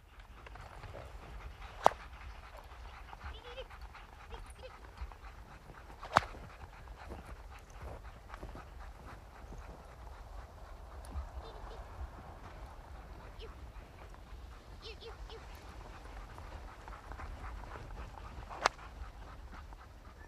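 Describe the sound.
A sledge pulled by nine dogs and loaded high with whale meat arrives, with a steady scrape and patter of runners and paws over snow, broken by a few sharp clicks or jingles of harness, muffled voices faint in the background.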